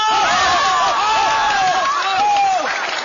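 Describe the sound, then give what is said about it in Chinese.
A crowd at the first Chicken King Championship applauds steadily for about three seconds as the contest's special guest, Constable Xing, is invited to speak, the dense patter of clapping mixed with scattered cheering voices rising and falling over it, fairly loud throughout. “下面有请这次大赛的特邀嘉宾邢捕头致辞，再次鼓掌。”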